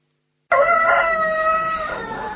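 A rooster crows once, loud: a strained, held cry lasting over a second that trails off, set against a steady background murmur of a busy, noisy space at the Alpha Expo, where chickens are being exhibited.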